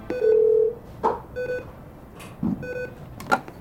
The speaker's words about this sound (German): Und so klingt das dann, wenn jemand die 112 gewählt hat.